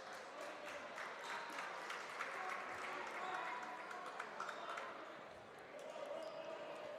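A basketball crowd cheers after a reverse layup basket in a steady, dense roar that holds for several seconds, dotted with sharp claps and ball bounces, easing briefly before swelling again near the end.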